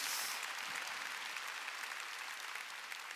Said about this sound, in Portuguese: Sempre é Jesus, aplauda mais forte, em nome de Jesus.